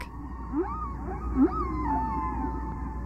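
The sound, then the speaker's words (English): Eerie whale song with long gliding moans and rising swoops, several overlapping tones drifting over a steady low underwater rumble, no voices. “You know, if we could get humanity to hear these sounds, we could get them interested in whales, probably enough to do something about it.”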